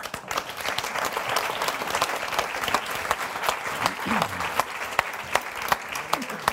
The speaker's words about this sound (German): Begrüßt mit einem ebenso herzlichen Applaus Sabine Tambrea.